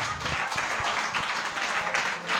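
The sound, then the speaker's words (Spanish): Steady applause from an audience for a prize winner picked by number draw. It is a dense wash of many hands clapping at a fairly even loudness throughout, with no pause or clear individual claps standing out. “Hombre, un aplauso.”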